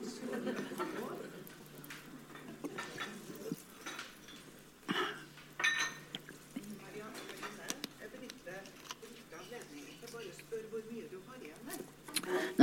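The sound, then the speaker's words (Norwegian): Water is poured into a glass and sipped, with a few light clinks of glassware, while people talk quietly in the background. “Jeg tror jeg må ta meg en slurk vann.”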